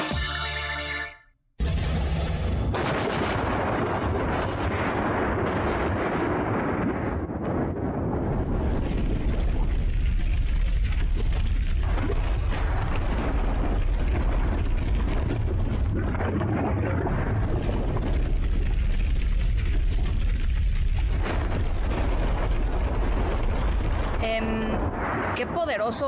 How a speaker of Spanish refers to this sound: Estamos escuchando una explosión volcánica, eh, un riesgo que pues se vive en muchas comunidades de nuestro país, por supuesto de nuestro planeta Puebla, ¿no?